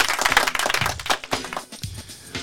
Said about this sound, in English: So um, let's give them a round of applause.